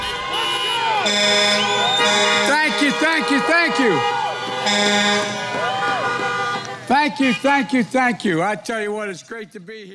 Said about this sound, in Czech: 25 minut mluvil a ty auta během toho troubily, jako když mu chtěli jako zatleskat nebo tak, tak místo toho troubily.